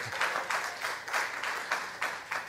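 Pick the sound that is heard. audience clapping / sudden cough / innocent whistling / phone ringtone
audience clapping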